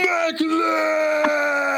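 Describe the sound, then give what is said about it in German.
A single long, drawn-out yell from a man's voice, a policeman or villain yelling after someone fleeing, loud and sustained at one strained pitch for nearly two seconds, with no pauses and no other sounds around it. “Es gibt immer einen, einen Polizisten oder einen Bösewicht, je nachdem, wer gerade reingelegt wurde, der dann dem fliehenden McLaren hinterher brüllt”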